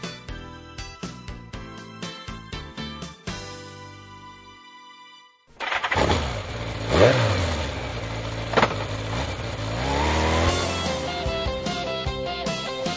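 A short musical opening gives way to a motorcycle engine starting up and revving loudly nearby, its pitch rising and falling in repeated throttle bursts through to the end.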